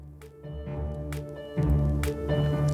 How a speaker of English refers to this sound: I'm going to take a sip of water.